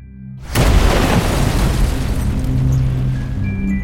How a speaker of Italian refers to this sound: Un ordigno esplode sul retro della Basilica di San Giovanni Laterano, sede della Curia Romana, e poco dopo un'altra scoppia di fronte alla chiesa di San Giorgio al Velabro.